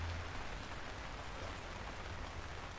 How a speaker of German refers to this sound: Ähm, und als nächstes rennen ganz viele Menschen, kleine, grosse, also Kinder und Erwachsene, rennen über die Bühne durch den Regen durch und bleiben aber auch trocken, wenn sie auf der anderen Seite ankommen.